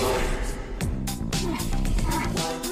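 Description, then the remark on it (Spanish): A bear growls and snarls loudly, its rough, throaty calls coming in several overlapping bursts over a few seconds; it is the bear that has swallowed cocaine in the film Oso Vicioso. “¡El oso! ¡El mamón se tragó la coca!”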